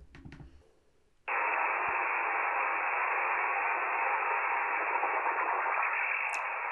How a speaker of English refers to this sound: I asked somebody that I knew uh, like what is this like what is this thing? And they were like, "Oh, it's a welder machine." I was like, huh? I didn't know they gave off what? radio signals, but apparently they do. But this is what they sound like.